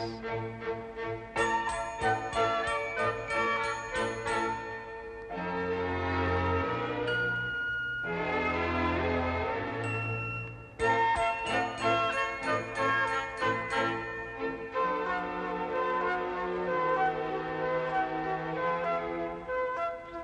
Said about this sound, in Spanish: Si eres curiosa, verás cupidos color de rosa que al agitar sus blancas alitas dejan sonido de campanitas.